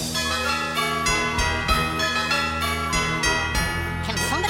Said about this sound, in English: pull the plug on those bells?